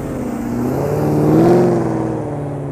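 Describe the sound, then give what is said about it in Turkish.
A car with a loud, modified exhaust revs up, its deep rumbling engine note rising to a peak and then easing back. The sound is heard alone, with no voices. “Adam koymuş egzozlara bakar mısınız?”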